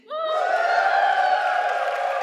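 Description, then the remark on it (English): An audience bursts into cheering and whooping for a contestant in a word game, a loud sustained roar of many voices that swells in quickly and holds steady, with no clear speech. “Um, can I just hear some cheers”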